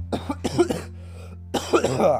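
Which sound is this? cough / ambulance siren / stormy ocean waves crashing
cough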